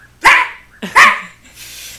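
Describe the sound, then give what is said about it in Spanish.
A person's voice mimics a maned wolf's bark: two loud, harsh, scream-like barks, spaced under a second apart, then a soft hiss. “es un ladrido, pero parece un grito”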